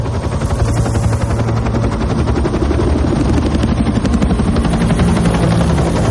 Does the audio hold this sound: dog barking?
no